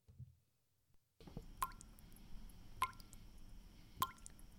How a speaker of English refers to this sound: Do the drips have you down? then let the professionals at Swink Roofing Company take care of that leaky roof.